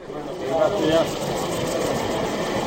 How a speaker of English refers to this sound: A helicopter prepares to travel northeast from Bogota towards the Venezuelan border, straight into territory held by the rebel armies known as the FARC and the ELN.